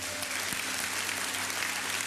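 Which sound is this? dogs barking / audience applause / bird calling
audience applause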